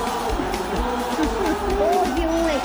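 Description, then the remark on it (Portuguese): A dense stadium crowd of Ponte Preta football fans roars and chants, celebrating their team's second goal, scored in the 46th minute of the second half, with rising sung voices riding over a steady wall of cheering throughout. “Festa da torcida da Macaco Wellington.”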